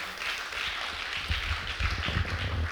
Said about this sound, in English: Yeah, you can give Him a good round of applause this morning.